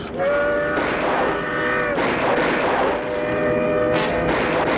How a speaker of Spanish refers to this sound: Tras oír al tren llegando, Lane mira la mula con la dinamita.